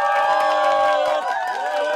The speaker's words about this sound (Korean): 자자 이번에는 신랑 신부의 새로운 시작을 축하하는 의미 축하가 이어지겠습니다. 박수.